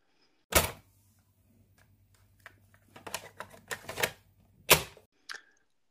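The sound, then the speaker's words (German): A cassette holding Track 1, a rap track, is loaded into a player: a sharp plastic clack, a flurry of small rattling clicks, another loud clunk and a final soft click, over a low steady mechanical hum. “Track 1 wird eingelegt Track 1 ist Rap und ähm, ja, los geht's mit der Kassette.”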